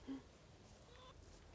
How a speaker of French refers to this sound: Alors là, on a neuf poules, neuf poules qu'on a là.